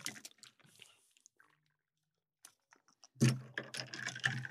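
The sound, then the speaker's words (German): A pen stirs a drink of water and mango juice, with sparse light clicks and scrapes that give way to a louder, busy burst of rapid clinking and rattling against the glass near the end. No voices. “Ihr müsst es schon noch ein bisschen umrühren, ne? weil jetzt ist der Mangosaft ganz unten.”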